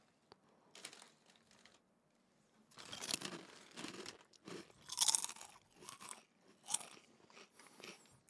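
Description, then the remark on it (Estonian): Crisp crunching of a cookie being bitten and chewed, in a run of irregular bursts with short pauses between, loud with no talking. “kas sa küpsist tahad? jah, palun ah,. võta.”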